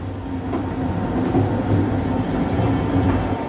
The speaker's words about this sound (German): Führt mit einem Zug tief in einen Bergstollen hinein und ist eine Spurensuche nach der Kraft der Natur.